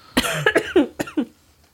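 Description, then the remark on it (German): A rapid fit of about five or six short, harsh coughs, fairly loud, coming in an uneven burst with no talking. “Bevor ich hier noch einen Hustenanfall kriege, würde ich sagen”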